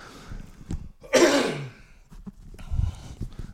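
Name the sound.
throat clearing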